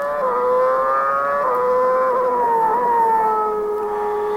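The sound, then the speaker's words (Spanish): A racing car's engine screams along the straight between turns 10 and 11 with DRS activated, in one loud, continuous whine, its pitch holding high and shifting slightly at a couple of points, with no voices over it. “Escuchen esta recta porque aquí se va a activar el DRS entre la curva 10 y 11.”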